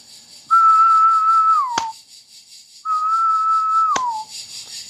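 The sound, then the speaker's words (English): A person whistles an imitation of a male periodical cicada's mating call twice: a steady tone that drops in pitch at the end, each followed by a single sharp hand clap standing for the female's answering wing flick, with a pause between the two. “So the male will make his call, and I'll clap when the wing flick should occur.”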